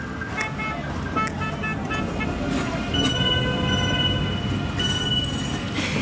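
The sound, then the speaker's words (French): Busy outdoor street ambience at Barbès with a steady roar of traffic and a metro train passing, its wheels squealing in sustained high tones, with clanks and faint voices mixed into the crowd noise. “Je crois qu'on est à Barbès, c'est ça”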